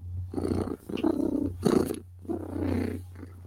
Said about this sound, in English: Cause she's a happy girl. That's what that means. When she start purring and stuff, all that, that makes you happy.